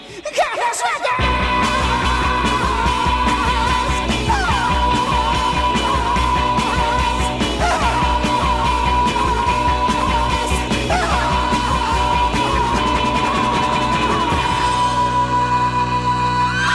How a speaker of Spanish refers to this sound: grito fantasmagórico con el que eh, acaba. Es buenísima, es buenísima. Cada vez da más miedo eso.